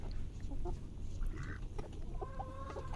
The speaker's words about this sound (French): Ah, t'as le coq qui arrive.